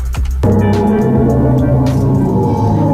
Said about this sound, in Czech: Jestli jste si mysleli, že ve vesmíru nejsou žádný zvuky, tak NASA zveřejnila, jak doopravdy zní černá díra